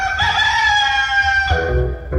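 Dejaci's rooster crows loudly, one long drawn-out cock-a-doodle-doo with a strained, harmonic-rich tone that breaks off near the end, heard alone without any talking.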